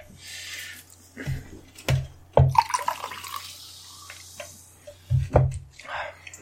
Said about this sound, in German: Ich glaube, ich nehme mal einfach einen Schluck Fanta oh ja, Strawberry.